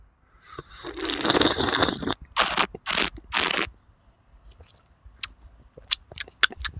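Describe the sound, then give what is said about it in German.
A loud, airy slurp of freshly brewed coffee drawn in sharply for about two seconds during a coffee tasting, followed by a few wet mouth sounds and scattered small clicks, with no talking. “während er jetzt ansetzt, äh, sage ich, achso, ja, wir schlürfen”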